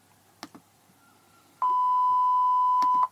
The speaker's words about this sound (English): And then it's beeped.